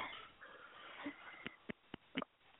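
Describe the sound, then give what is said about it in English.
A pet bird named Pony Bird growls from his cage, a few short raspy bursts spaced out over a couple of seconds against a quiet background, with no talking. “Sorry, Pony Bird is growling at me. I walk past his cage and he thinks it's time to play.”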